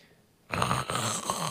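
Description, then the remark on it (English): A voice imitates the death rattle, a snore-like gurgling noise that is a symptom of overdose, a harsh, rough rumble that starts abruptly after a short quiet moment and continues loudly for about a second. “Choking sounds or a snore like gurgling noise, sometimes called the death rattle.”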